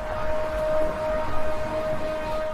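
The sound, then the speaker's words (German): A siren in Jerusalem sounds a single steady, unwavering tone across the city on Friday evening, announcing the start of Shabbat, over a low rumble of outdoor background noise. No one speaks. “Eine Sirene kündigt in Jerusalem am Freitagabend den Beginn des Schabbat an.”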